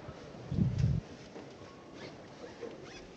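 A short burst of low, heavy knocks from the llamador knocker of a Holy Week procession float, two or three dull strikes in quick succession, followed by quiet background murmur.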